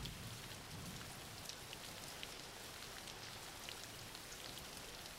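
Steady rain falls without a break, a dense hiss with scattered brighter patters of drops striking a surface. No voices are present.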